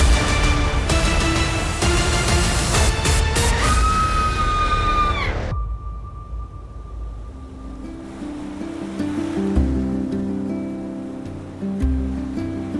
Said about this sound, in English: high above the crashing waves in definitely not shark infested waters. Definitely not.